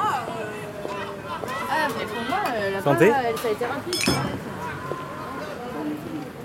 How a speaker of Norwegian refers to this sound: går i den lille gata Rue du Montabour rett ved Tulleriparken i Paris. Det er sen kveld, og jeg er alene på fortauet. Men plutselig kommer det folk ut fra den lille baren for å røyke og skåle.